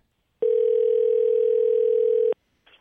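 A steady telephone dial tone hums loudly for about two seconds before a phone call to a fan, then cuts off abruptly, followed by a brief faint click or noise.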